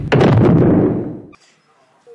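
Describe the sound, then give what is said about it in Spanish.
A door slams shut once with a loud, booming bang that rumbles and fades over about a second before cutting off to near silence. “A que aún recuerdan ese grito y ese portazo.”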